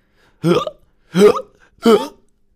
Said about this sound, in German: Da ist er wieder, dieser dinomenale Schluckauf. Der erwischt unseren Dino immer, wenn er aufgeregt ist.